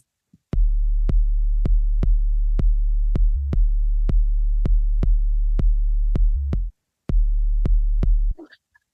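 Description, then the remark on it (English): Electronic dance track, a reworked version keeping the original bassline and rhythm: a punchy kick drum thumping steadily about twice a second over a deep, sustained bassline; the groove briefly cuts out near the end before resuming. “it's uh, still kind of good for the dance floor but it's totally different rhythm so yeah what i did is i just took the same uh the same bassline yeah and i kept this rhythm together with the kick”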